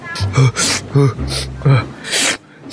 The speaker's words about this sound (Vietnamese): thôi được rồi bác cứ bình tĩnh đi bây giờ hít vào thở ra hít sâu vào